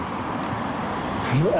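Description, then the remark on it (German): A steady roar of road traffic on the four-to-five-kilometre bridge over the Columbia River from Washington to Astoria, Oregon, which has no proper shoulder, with a vehicle engine rising in pitch near the end as a car speeds past. “Und da gibt es keinen richtigen Seitenstreifen. Und wenn die Autos da drüber brettern,”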